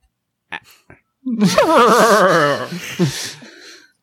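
A voice imitates a horse's whinny: a couple of short breathy sounds, then a loud, quavering neigh that wobbles in pitch for about two seconds before trailing off.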